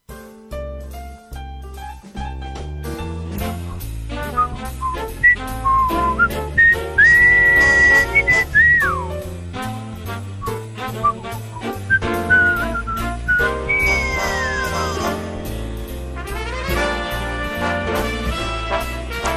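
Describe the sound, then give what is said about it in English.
A whistled tune with sliding, sustained high notes drifts over steady instrumental backing music, the melody coming in phrases while the accompaniment plays throughout; no one speaks. “You know, I used to like to walk down the street whistling, but people look at you like you're weird.”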